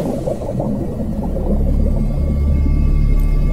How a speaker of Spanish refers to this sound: Emociones de altísima vibración provenientes del sonido de las ballenas que elevarán tu frecuencia vibratoria permitiéndote comprender tu ego y reactivando en ti las memorias de armonía, libertad y unidad.